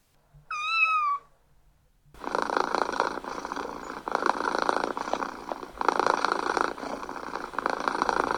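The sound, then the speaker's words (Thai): A single short meow, then after a brief pause a cat purrs steadily, a loud, low rhythmic rumble made with its mouth closed that swells and eases with each breath. “ใครที่เลี้ยงแมวน่าจะเคยได้ยินเสียงนี้นะคะ ฟังดูเหมือนกับเสียงกรนค่ะ แต่ไม่ใช่เสียงกรนของแมวนะคะเสียงกรือต่ำๆเป็นจังหวะที่แมวเปล่งออกมาโดยไม่อ้าปากนะคะ เป็นเสียงที่สามารถตีความได้สองความหมายค่ะ”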